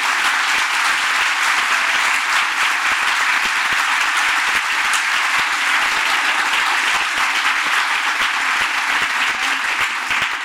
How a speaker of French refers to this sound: Je crois qu'on peut les applaudir tous les cinq.